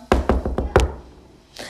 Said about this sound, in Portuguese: E quando o Chapeuzinho bateu na porta